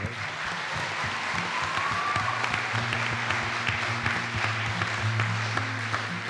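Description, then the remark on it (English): An audience at the first Echoes of Worth retreat in the Bay Area claps steadily for several seconds, a dense wash of hand claps with a low hum running underneath and no one speaking over it. “Let's give it up”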